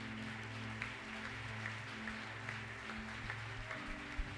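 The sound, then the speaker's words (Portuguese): A church audience claps steadily in applause for Jesus, a dense, continuous patter of applause over a sustained low keyboard drone, with no one speaking. “Se você aplaude a Jesus então direito.”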